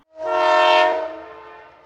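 A train horn on the Valley Railway at Kfar Yehoshua sounds one long, loud, chord-like blast that swells quickly, holds steady, then fades away over a low rumbling from the passing train. No one speaks.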